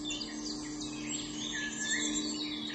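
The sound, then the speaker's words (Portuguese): Birds chirp and twitter continuously in a busy overlapping chorus in a city, set against a steady low hum of cars and motorbikes, with no one speaking. “junto com os pássaros, sons de carros, motos e a cidade do seu jeito se colocava em movimento.”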